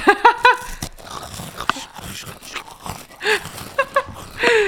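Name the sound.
crunching potato chips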